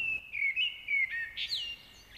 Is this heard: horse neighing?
no